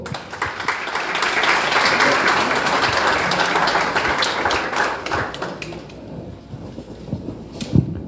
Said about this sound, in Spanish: En estos momentos hace su entrada a este auditorio el señor rector de la Universidad Nacional Agraria, ingeniero y máster en ciencias, Alberto Cediles Jaén. Un aplauso, por favor.